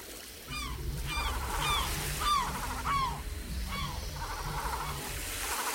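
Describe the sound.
A voice imitates a coastal scene, a west wind of 5 or 6 knots with a small swell beating against rocks: a steady rushing hiss like wind and surf beneath about seven squawking, gull-like cries repeated at an even pace, fairly loud.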